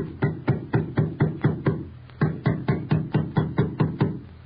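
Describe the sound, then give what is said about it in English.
A hammer as two carpenters nail down the three-plank lid of a wooden packing case with Harry Houdini inside: a steady run of sharp, fairly loud woody blows, a brief pause, then another even series of strikes. No voices. “Two burly carpenters step forward, place the three plank lid in place, and nail the lid down.”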